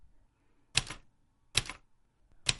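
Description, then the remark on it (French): Three crisp typewriter key strikes, spaced slowly and unevenly, each a sharp clack with a short metallic ring, with near silence between them and no voices. “Je connaissais son martèlement, je connaissais les bureaux et leur peuplade de bureaucrates.”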